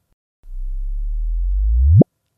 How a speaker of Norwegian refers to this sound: Sånn høres det ut. Ja. Uh, dette er da et ujustert opptak av en gravitasjonsbølge. Vi kan høre det en gang til. Eh, for meg så høres dette da ut som en frekvens som starter ganske lav, og så blir den høyere, høyere, høyere, fram til det blir stille.